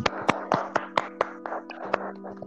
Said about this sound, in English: Guys, I would expect a big round of applause